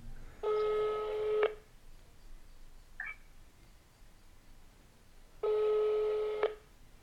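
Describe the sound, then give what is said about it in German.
An outgoing call's ringback tone: two steady, buzzy one-second tones separated by a long pause of silence, with a faint brief chirp in between and no talking. “Patrick klingelt auch.”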